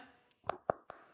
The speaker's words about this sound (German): das ist mein Handy, da klopfe ich gerade so drauf, scroll hier mal so ein bisschen durch. Das mache ich jetzt gerade auch, ne?